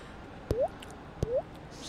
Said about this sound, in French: Moi, c'est la goutte d'eau, j'aime bien.